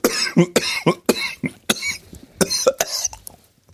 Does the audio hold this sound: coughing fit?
yes